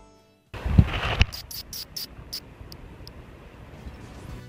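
A little brown bat, held in a rubber glove, tries to bite through the rubber: a few rubbery thumps and rustling, then a quick run of shrill, high squeaks that fade into a soft hiss.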